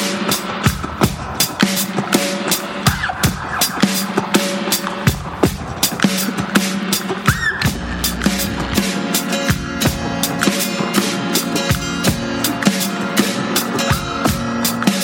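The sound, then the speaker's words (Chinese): A loud, dense rock recording with driving drums, crashing cymbals and heavy distorted guitar, keeping a steady pounding rhythm throughout without any vocals. “呃，这一个也不是爵士乐，但是我为什么想做上来？因为我很喜欢这个人”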